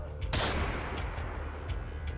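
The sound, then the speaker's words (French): A single sharp revolver gunshot cracks out loud, followed by a lingering low rumble and background noise, with no one speaking, in a dramatized scene of a leader pointing a revolver taken from his office desk drawer at his own head. “tire un revolver d'un tiroir. Alors qu'il entend les cris se rapprocher, Xi Jinping n'a plus qu'une seule chose à faire et pointe le canon de son revolver sur sa tête”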